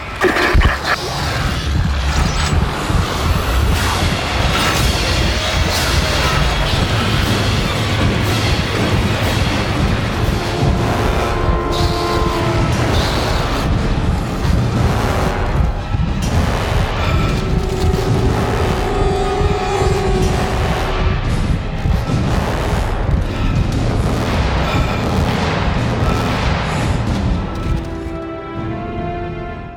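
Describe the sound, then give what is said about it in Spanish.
Loud, dense horror video game ambience with tense music as the player moves down a corridor where nothing happens: a constant low rumble, droning tones and scattered metallic hits and booms, sustained without letup for the whole stretch, with no voices. “Vale, vamos a escuchar ahora un pasaje en el que me estoy moviendo por un pasillo y no sucede absolutamente nada.”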